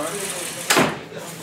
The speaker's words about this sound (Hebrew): אולי תפתחי את הדלת עד הסוף